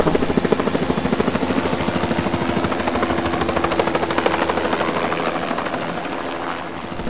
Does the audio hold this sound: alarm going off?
no